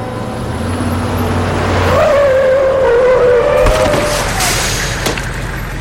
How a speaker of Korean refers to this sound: 트럭이 덩치를 들이받고 지나간다.